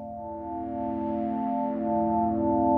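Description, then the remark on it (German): A steady synthesizer tone from two oscillators, with a pure sine-like core and a gritty, creaking wavetable texture, held continuously and swelling slightly louder toward the end, with no talking. “das ist der, dieser Sinus-Sound mit dem knarzenden Wavetable.”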